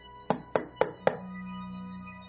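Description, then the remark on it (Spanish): Four sharp knocks on a green wooden door in a quick, even rhythm, each a crisp, fairly loud rap, followed by a low steady hum after the last one. No voices. “Así fue como tomó valor y tocó la puerta de madera verde haciendo”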